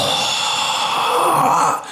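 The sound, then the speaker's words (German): A person imitates heavy, stressed breathing: one long, loud, breathy exhalation, rough and sustained, tapering off at the end. “so schweres das ist, Atmen dieses Gestresste oder so.”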